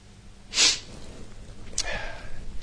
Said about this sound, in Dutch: Ik zit een beetje te snotteren. Ik heb geen zakdoekje.